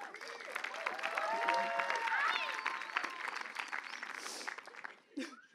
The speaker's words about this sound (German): Gebt alle mal einen Applaus.